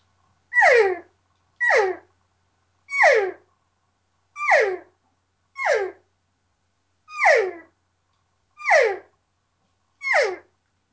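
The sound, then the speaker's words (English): Eight short, nasal cow-call mews blown on a latex reed game call, made by pressing the tongue against the latex with a little more pressure. Each slides downward in pitch, evenly spaced, with clean silence between them and no talking. “And then just by adding a little more tongue pressure to it, you're going to get into that cow call sound.”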